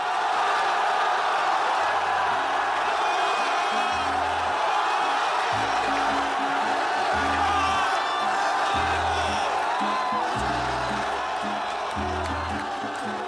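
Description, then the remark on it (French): A massive stadium crowd of Montpellier football supporters cheers and roars continuously at the final whistle as the club wins its first French championship title in the 2011-2012 season, a dense, loud wall of voices with rhythmic low booming beats pulsing underneath. “Les joueurs Montpellier courent dans tous les sens, le président peine à cacher son émotion, les supporters hurlent leur bonheur.”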